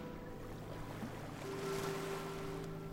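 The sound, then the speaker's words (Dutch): Steady wash of waves slapping against a ship's hull and deck, with soft splashes and a low rumbling drone underneath, swelling slightly midway through; no voices. “Je voelt dat je evenwicht heel rustig van links naar rechts gaat en je hoort de golven tegen het dek slaan.”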